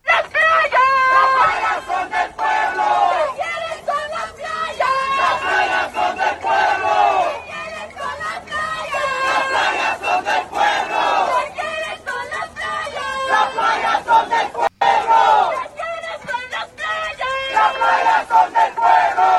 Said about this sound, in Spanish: Eso que ustedes escuchan fueron múltiples manifestaciones que se llevaron a cabo a lo largo de toda la caminata por, la Quinta Avenida, ¿verdad?